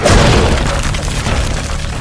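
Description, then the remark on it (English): A wooden crate smashes apart with a loud crash and a heavy booming thud, followed by a rough splintering rumble that carries on for about two seconds with no voices. “His arm, I think, like cleaves clear through a wooden crate, sending splinters into the air.”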